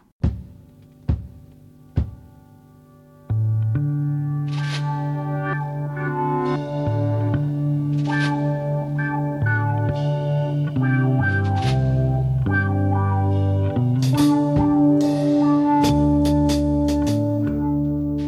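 A progressive rock song from 1969 plays: a few sharp, isolated struck notes open it, then a full band enters with sustained chords and a steady bass, loud and continuous.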